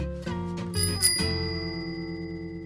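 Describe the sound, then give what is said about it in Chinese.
The bell of a blue bicycle parked outside a restaurant rings in a few quick bright dings, then its metallic tone hangs on and slowly fades out. No one speaks. “还有一辆蓝色的脚踏车停在外头”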